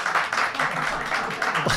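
A burst of audience applause, dense overlapping claps forming a steady, bright crackle that holds at an even level for a couple of seconds.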